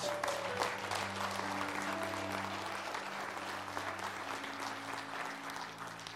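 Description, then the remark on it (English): An audience claps together to give God praise, a dense, sustained burst of applause that stays loud throughout, with steady low sustained tones, likely organ or keyboard, sounding underneath. “When God calls them, if you're going to clap, let's clap. Come on, let's give God praise.”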